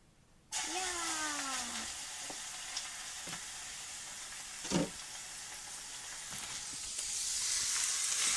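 Pork is put all at once into a hot pot with perilla oil and erupts into a loud, steady sizzle and crackle that continues throughout, sticking to the pot, with a brief scrape or clatter of utensils partway and the frying swelling louder near the end.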